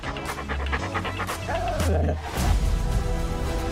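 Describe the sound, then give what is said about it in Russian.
A puppy pants in quick, rhythmic breaths, letting out a short, rising whimper midway before the panting continues over a low background rumble. “Мой щенок!”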